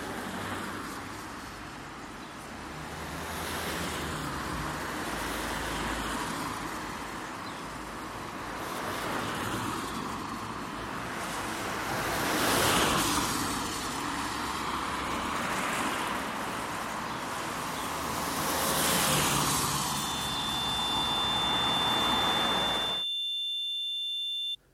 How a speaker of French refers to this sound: À 16h12, on était pris au piège du parking de l'animalerie, otage du flux de bagnole qui saturait la départementale.